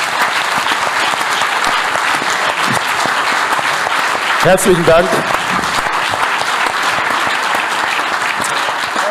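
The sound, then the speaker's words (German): Steady audience applause after a lecture fills the whole stretch, a dense, even wash of clapping at high level. Midway a man's voice briefly speaks over it before the clapping carries on. “Applaus”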